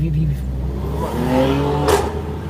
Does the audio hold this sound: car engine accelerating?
yes